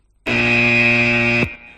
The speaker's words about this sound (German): ich glaube, an dieser Stelle setze ich auch mal den Spoiler-Alarm.